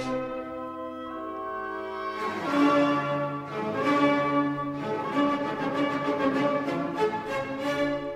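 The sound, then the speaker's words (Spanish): An orchestra plays the recapitulation of a symphony, where the themes return with more character and more instruments, opening with soft sustained chords before swelling into a fuller, louder section with steady rhythmic accents. No one speaks. “En la reexposición, es decir, cuando va van a volver los temas, pues suena muy parecido.”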